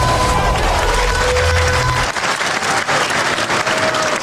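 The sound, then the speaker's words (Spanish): A crowd applauds loudly and steadily, a dense wash of clapping with some cheering mixed in, and a low rumble under the first two seconds before it fades out. “Buen digo porque está aplaudiendo la gente.”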